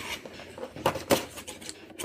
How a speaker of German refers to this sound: Ich mach auf. Ich mach, mach jetzt auf, auf. Schere dabei.